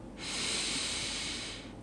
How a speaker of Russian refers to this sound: И полностью расслабляясь, закрывайте глаза и цепляйтесь фокусом внимания за свое дыхание. Глубокий вдох